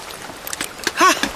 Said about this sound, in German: Wow, es ist aber ein komisches Gefühl, mit den nassen, kalten Fingern im trockenen Rucksack zu wühlen. Ein Glück, dass dein Rucksack wasserdicht ist.